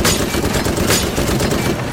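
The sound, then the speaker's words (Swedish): A rapid volley of gunshots from a French fighter plane firing at German planes, the loud cracks running together into a dense, rattling burst over a constant roaring background, with no talking. “Fågeln har rov i tanken och avlossar några skott i tät följd.”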